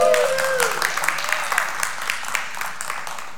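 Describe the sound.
A crowd breaks into steady applause, a dense patter of many hands clapping at moderate volume, with a few voices calling out over it before it thins toward the end.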